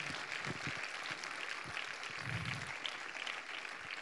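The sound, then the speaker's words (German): A crowd applauds steadily for people who have prayed for years for revival in Germany, a dense wash of many hands clapping at an even level throughout, with a few low thumps and murmurs mixed in. “Lass uns mal den jahrelangen Betern einen Applaus geben.”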